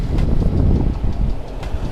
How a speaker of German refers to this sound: Es war ein Gelenkbus, ein extra langer. Zwei Schüler, ein älterer Herr und der Fahrer.